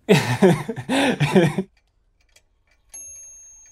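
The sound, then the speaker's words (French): After a burst of voiced laughter-like sounds and a pause, a single small clock chime rings out, a clear, bright ding that lingers and sustains to the end. “des fois, il y a plein de moments où, euh, j'ai pu attendre pendant 5 minutes devant une horloge euh, qui sonne et d'avoir juste un petit ding.”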